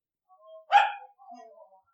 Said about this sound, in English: She's, bark- she's barking into the mic.